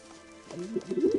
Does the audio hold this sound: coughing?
no